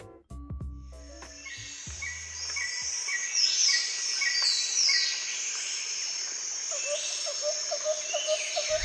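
Dense tropical forest ambience in the Mexican jungle near the border with Guatemala, a hot region dotted with water and lush vegetation: a steady, shrill drone of insects fills the air while birds chirp and whistle repeatedly, with a brief low rumble at the very start and no voices.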